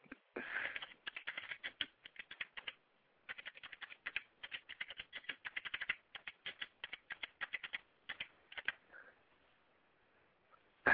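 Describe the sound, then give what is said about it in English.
Rapid, uneven keyboard typing of a message clatters in bursts of keystrokes, with short pauses between runs; fairly quiet, with no voices. “I know that was a long silence right there, just me typing.”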